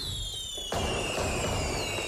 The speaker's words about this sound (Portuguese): E festa que é festa tem fogo de artifício